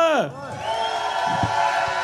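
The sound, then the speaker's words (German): A large crowd at the Wacken 2023 festival cheers and whoops steadily to welcome a band from Germany, a falling shout at the start giving way to a sustained roar of voices that stays loud throughout. “Applaus bitte!”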